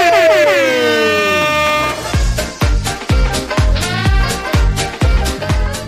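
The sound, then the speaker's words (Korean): A loud, sustained air horn blast slides downward in pitch for about two seconds, then gives way to a punchy, steady rhythmic beat of repeated heavy thumps. “네, 빵빵빵 네.”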